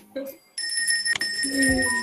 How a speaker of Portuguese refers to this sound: Esse sino ia tocar o dia todo aqui em casa.